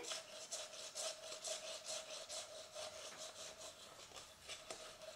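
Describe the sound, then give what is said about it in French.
Fingers scratch rapidly against a cup in a steady back-and-forth rhythm, about two rasping strokes per second, with a faint ringing tone underneath and no voices. “Gratter.”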